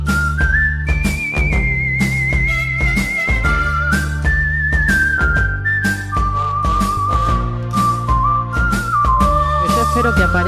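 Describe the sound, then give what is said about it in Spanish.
A loud whistled melody glides through long held notes and stepwise pitch changes over a full band with steady bass and percussion, like a western-style theme tune. No one speaks. “Eh, y hoy está la sintonía que suena un poquito, que es muy bonita.”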